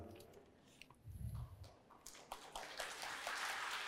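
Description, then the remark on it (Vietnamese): Scattered handclaps come first, then build into steady, dense applause from a group that grows louder and fuller toward the end, with a brief low rumble early on. “nhờ có hai anh mà những người ở đây mới biết vỗ tay là gì đấy các anh ạ gớm vỗ tay đi thì nó có năng lượng”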